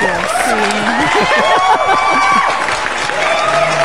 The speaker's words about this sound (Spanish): ¡Aplausos para los pinches chavirrucos!